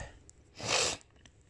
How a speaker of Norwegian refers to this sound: og jeg snufsen. Men det går bra.